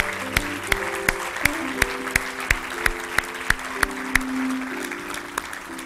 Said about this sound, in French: Est-ce qu'on peut acclamer le Seigneur une dernière fois?